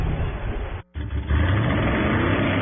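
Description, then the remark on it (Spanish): A loud engine roars, cutting out for a split second before revving up again with a rising, sustained growl that holds steady to the end. No voices. “Voces y rugidos en autos y motos”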